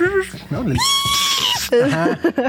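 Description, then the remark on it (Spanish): A person vocally imitates a whistling tea kettle, holding a steady, shrill tone for about a second between bursts of lively talk. “Que equivale al ruido que hace una tetera cuando...”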